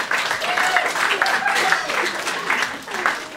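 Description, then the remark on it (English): A lukewarm round of applause from a crowd, steady scattered clapping with murmuring voices mixed in, lasting about three seconds without building or swelling. “Have you ever heard a more begrudging round of applause in your whole life?”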